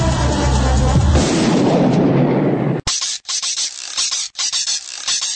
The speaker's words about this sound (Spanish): Escuchar los disparos